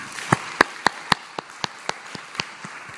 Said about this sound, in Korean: 한 주간을 인도하신 우리 하나님께 영광의 박수 올려드리겠습니다.